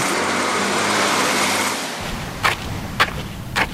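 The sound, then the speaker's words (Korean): A city bus rumbles along the road from the Hongcheon terminal in Gangwon Province, South Korea, with a steady low engine drone and broad road noise, then the sound drops and three short hissing bursts follow at regular intervals. “강원도 홍천 터미널에서 시내버스를 타고 1시간 10분.”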